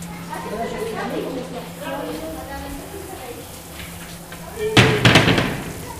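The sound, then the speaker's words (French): Two or three loud, sharp door bangs land in quick succession near the end, following muffled voices over a steady low hum. “Vous entendez bien le bruit des portes là”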